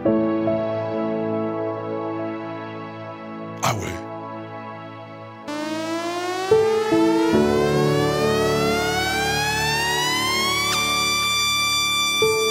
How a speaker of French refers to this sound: est-ce qu'il existe de la musique faite spécialement pour les chiens T'as entendu parler de ça Ah bon Ah dis donc, ah, c'est de la musique pour chiens ça